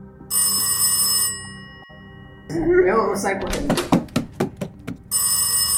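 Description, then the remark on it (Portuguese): A loud telephone bell rings in a sustained burst, stops while a man speaks briefly amid quick clattering knocks, then starts ringing again. “Na hora que você tá levantando ele, levando ele pra porta, seu telefone toca.”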